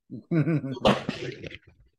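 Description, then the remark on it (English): A chair's back gives way with a sudden loud crack and thud, followed by knees banging into furniture, with a short startled voice cry just before the crash. “Oh no, dude, the chair, the chair like broke back. And then my knees hit the thing.”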